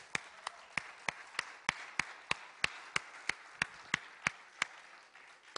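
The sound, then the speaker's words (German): An audience in a room claps in steady unison for the people under 20 who have stood up, a sharp rhythmic beat of about three claps per second over a soft wash of crowd noise, with no talking. “Wir geben Ihnen einen Applaus.”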